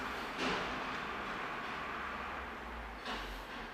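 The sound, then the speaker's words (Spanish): A car with worn suspension parts (mesetas) rattles and rumbles past outside, a steady low roar with two brief louder clattering bursts near the start and end, with no voices. “Qué necesidad que uno esté grabando un podcast y se te meta el ruido de la meseta, esa densidad que tienes.”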